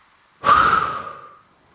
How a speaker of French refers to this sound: Soufflez fortement par la bouche pour évacuer toutes vos entraves.